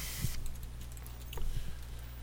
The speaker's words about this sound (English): Sorry, I'm, you're hearing me clicking frantically in the background, I'm sure. I'm going to try to find the Shades of Grey file and give you a spoiler.